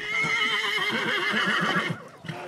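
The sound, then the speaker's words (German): A horse being unloaded on arrival gives a loud whinny lasting about two seconds, its voice quavering in rapid pulses before breaking off, followed by a brief softer sound. “Bei der Ankunft sind die Pferde auch schon da und werden gerade ausgeladen.”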